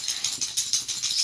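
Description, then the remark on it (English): The speaker's dog's collar tags jingle and rattle in quick, uneven rhythmic bursts, bright and metallic, lasting about a second with no barking or voices. “sorry, that's my dog.”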